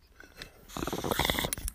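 Bubbling of water in a silicone bong with a glass-on-glass connection as cannabis is smoked, starting as faint gurgles and swelling into a steady, rapid burbling rumble for about a second before cutting off.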